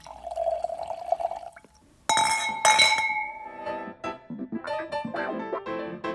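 Still wine pours steadily into a glass for a second or two, followed by a bright glass clink that rings out, then a series of lighter glassy clinks and splashes.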